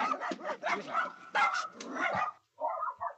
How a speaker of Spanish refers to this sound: Ya, perdón que me tardé, es que tuve que calmar una riña aquí entre mis perrijos, Wifi y Pancho, que se pelearon.